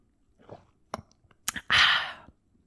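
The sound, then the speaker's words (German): Mouth sounds: a few soft lip smacks and clicks, then a short, airy slurp as someone sips wine from a glass during a toast, with no one talking. “Vielleicht nehme ich gleich noch einen Schluck.”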